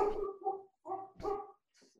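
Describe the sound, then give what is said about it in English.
A dog barks three times in quick succession, loud, with a couple of short pauses between the barks and no one talking. “yeah my my dog agrees”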